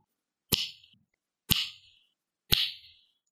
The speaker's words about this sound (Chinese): 哦，我用我的手指可以打响指，搓一搓你的手指可以出声音，你也可以试一下哦。